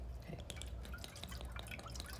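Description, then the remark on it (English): Somewhat old photographic fixer solution being poured: a quiet, steady trickle of liquid with small splashy drips running throughout, with no one talking. “Tell me when you're ready. And I'll pour the juice.”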